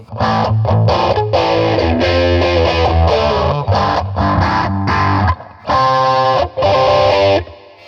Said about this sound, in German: Wir probieren, ob wir nur Crunch machen können. Na, machen wir. Ja, klingt ein bisschen Klingt komisch. Bisschen Oldschool-Verzerrung mäßig.